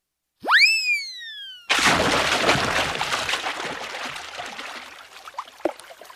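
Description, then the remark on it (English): A quick rising cartoon whistle is followed by a loud splash as Ralph the dog jumps into the water, trailing off into sloshing and a few scattered drips, with no voices. “Ralph jumps into the water.”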